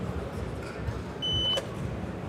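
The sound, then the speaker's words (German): A single short electronic warning beep from a brake simulator, a steady pure tone lasting about a third of a second, sounds clearly over a low background hum with faint background noise, paired with a change of light that signals the driver to press the brake pedal. “Es gibt einen Wechsel von Licht, dazu einen Piepton und dann kommt meine körperliche Reaktion, nämlich mit dem Fuß auf die Bremse treten.”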